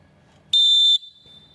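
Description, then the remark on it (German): A single short, loud blast of a Molten Falcon referee whistle, a steady piercing high tone lasting about half a second, with a faint ringing tail against quiet background noise. “Die Molten Falken.”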